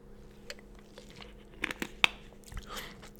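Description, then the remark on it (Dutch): Quiet mouth sounds of someone taking a sip of a drink, with a few soft wet clicks and a gulp scattered over a few seconds, no talking. “Neem even een slokje.”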